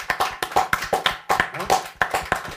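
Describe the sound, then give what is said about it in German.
Applause: a steady stretch of sharp, crisp hand claps from a few people, overlapping in a quick uneven rhythm, fairly loud and continuing for the whole couple of seconds. “Genau, einen Applaus für den Mann.”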